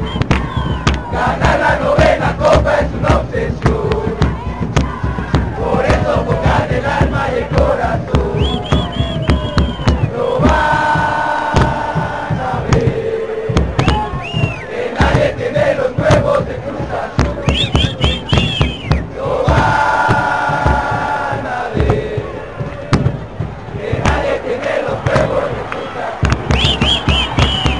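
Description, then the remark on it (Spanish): A huge stadium crowd of Cruz Azul football fans sings a chant together, voices swelling in rhythmic waves over a constant roar, with occasional sharp bangs cutting through the dense, loud wall of sound. “Bueno, esa que escuchamos es este de Cruz Azul.”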